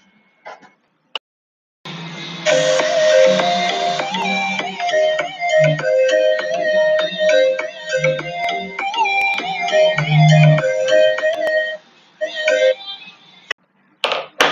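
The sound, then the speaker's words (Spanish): A short instrumental song played as an interlude, with a bright, electronic-sounding melody of stepping notes over a low bass line, playing loudly for about ten seconds before stopping abruptly. No one speaks. “Pero antes vamos a poner una pequeña canción.”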